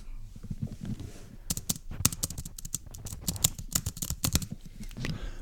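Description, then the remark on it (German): Rapid typing on a computer keyboard, crisp clicky keystrokes in uneven bursts, fairly loud, with a soft low background hum and no talking. “ist eine sehr schön klingende Tastatur.”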